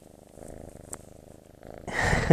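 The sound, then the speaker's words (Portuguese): A female cat at home purrs in a steady, low, rhythmic rumble, then a loud burst of rustling and scraping takes over at the end as the cat tries to pull the speaker's earphone out. “Entretanto, há um brilho de fundo e a gata aqui ainda não tem nome.”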